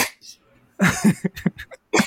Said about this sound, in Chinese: 在咳嗽